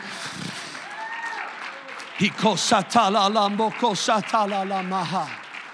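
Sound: audience clapping hands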